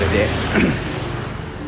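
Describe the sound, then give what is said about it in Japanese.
Vehicle engines rumble along a roadside with no sidewalk on the way to Angkor Wat, heard while walking, a steady low drone with a swell around the middle as one passes by, fairly loud and continuous throughout. “まあ、こんなとこ歩いてるやつ僕しかいないので横の横車道があってねいやこれせめてね歩道がどっかあればいいんだけどねずっとブルンブルン多分言ってますが”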